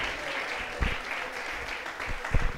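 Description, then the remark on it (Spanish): An audience at a church service applauding loudly for the Lord in a steady, dense wash of clapping that holds for a few seconds, with a couple of heavier low thumps rising out of the crowd noise. “denle ese aplauso bien fuerte al Señor, hermano.”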